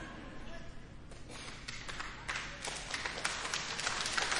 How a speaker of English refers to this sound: Hey, you guys clapped for me, and that wasn't even in my notes.